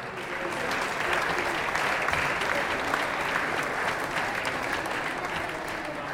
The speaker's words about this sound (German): Euer Applaus noch einmal.